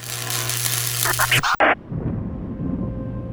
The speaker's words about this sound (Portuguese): Olha, reza a lenda que Nikola Tesla, gênio futurista de coração benevolente, nasceu durante uma forte tempestade de raios.